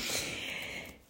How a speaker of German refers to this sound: wenn es hier im Hintergrund die ganze Zeit so brummende Töne, wenn ihr das hört, das ist mein Hund. Der liegt hier neben mir und wenn der schläft, dann gibt der immer so schnarchbrummende Geräusche von sich.